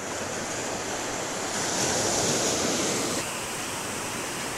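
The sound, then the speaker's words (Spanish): Steady rush of sea waves washing onto the shore, a broad hissing roar that swells briefly in the middle before easing back, with no voices present. “Qué lindo ponerse en la orilla a escuchar el mar. Solo escuchar el mar.”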